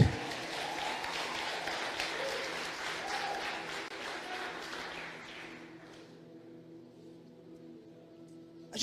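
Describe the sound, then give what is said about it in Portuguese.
An audience claps for Jesus in a dense, steady burst of applause that thins out and fades after about five seconds, while sustained low keyboard chords keep ringing underneath. “Você pode aplaudir a Ele aí?”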